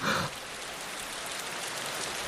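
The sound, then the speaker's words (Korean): Steady rain pours down in a continuous, even hiss of countless drops, moderately loud, with no voices, after a brief brighter splash at the very start. “어, 비가 오네요.”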